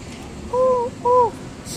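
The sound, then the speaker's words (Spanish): A person imitates an owl with two short, steady hoots in quick succession, fairly loud, against a quiet background with no talking. “No eres una lechuza. Soy una lechuza de día.”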